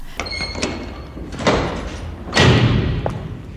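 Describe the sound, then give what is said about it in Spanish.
A door opens with a rattle, then swings shut with a solid thud a second later, with a faint high squeak at the start. It is the door of a fire station in Navarra. “Cruzamos la puerta de un parque de bomberos en Navarra”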